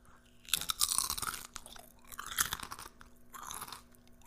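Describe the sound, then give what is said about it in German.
Crunching of chips being chewed, several loud crisp bursts in an uneven rhythm with short pauses between bites, no talking. “du wolltest noch irgendwie, glaube ich, irgendwelche Chips kauen, glaube ich.”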